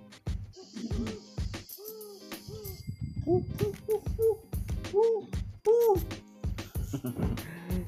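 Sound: owl hooting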